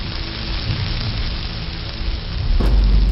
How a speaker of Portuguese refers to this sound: Assim que a luta termina, o som de um trovão baixinho lá ao fundo anuncia os primeiros pingos de um leve chuvisco gelado.